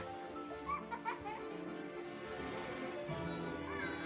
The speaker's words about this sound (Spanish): A pesar de que está a miles de kilómetros de su país de origen, el aire del mar Aquí sabe igual. Mira a sus hijos jugar.